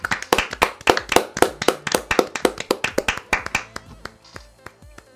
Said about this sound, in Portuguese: Uma salva de palmas pro cabelo L'Oréal Paris do Trevor Lawrence.